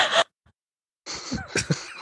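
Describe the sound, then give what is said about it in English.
A person imitates a woman's heavy breathing and coughing: a short harsh burst, a brief pause, then a longer stretch of raspy breaths broken by several rough cough-like pulses. “i thought she just breathed really heavy and coughed a lot i did but it was to express something”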